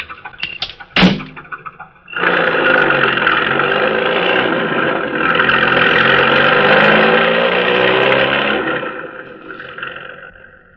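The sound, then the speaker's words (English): A car door thuds shut as the driver re-enters the car beside a vacant lot, then the engine starts with a loud roar and revs hard for several seconds as the car speeds away, easing off near the end. “Then, when the task is completed, the driver re enters the car and speeds away.”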